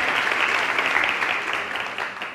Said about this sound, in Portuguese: Vamos receber com uma grande salva de palmas.